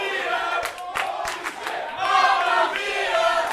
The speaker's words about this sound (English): The crowd split between Mamma Mia and Holy Shit Chance